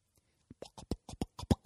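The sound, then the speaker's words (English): A voice imitates pumping the gas pedal of a truck called Big Boy as it warms up in the driveway at a quarter to six in the morning: a quick run of about eight breathy, rhythmic vocal bursts that grow slightly louder toward the end, fairly quiet. “It's me pumping the gas.”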